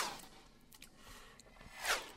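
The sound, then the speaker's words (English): A dry, unprocessed machete swish recorded as pass-by sound material whips past, a quick rising-and-falling whoosh near the end, preceded by a fainter swipe at the start, with no talking. “Ooh, machete.”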